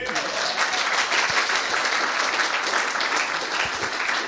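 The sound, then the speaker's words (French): An audience applauding: dense, steady clapping from many hands that holds at an even, fairly loud level for the whole stretch, with a few faint voices mixed into the crowd noise. “Et on applaudit.”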